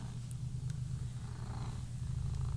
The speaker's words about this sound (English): Oh, my kitty cat, hold on. Something in the living room keeps scaring her, and I don't know what. So she's gonna hang out in here Give some good purring ASMR to the folks at home.